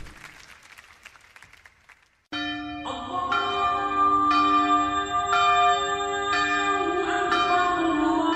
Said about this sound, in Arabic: عندما تعانق اجراس الكنائس تكبيرات المساجد تنطلق نفحات الايمان من كل مكان